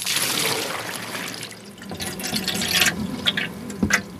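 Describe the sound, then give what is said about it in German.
Water pours steadily into a water bowl in a corn snake terrarium for about two seconds as the water is changed, then gives way to splashing, dripping and a few sharp clinks and plops, with no voices. “Danach wird das Wasser gewechselt.”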